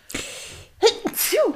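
A forceful sneeze: an airy intake gives way to sharp, breathy bursts with a brief voiced edge, heard on its own without any talking.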